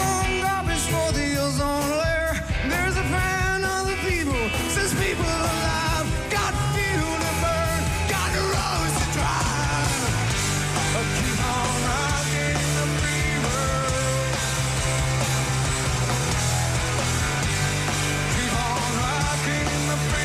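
A loud, dense rock song plays continuously, with distorted guitars, steady drums and a strained, shouted lead vocal riding on top of the full band throughout.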